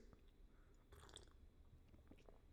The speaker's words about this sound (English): Ah, just having a sip of my coffee. Ah, good old coffee.